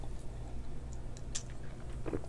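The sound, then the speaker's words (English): A quiet sip of a drink: a few soft wet mouth clicks and a brief slurp near the end, over a low steady hum, with no talking. “All I know is I'm highly thirsty, so let me get a sip.”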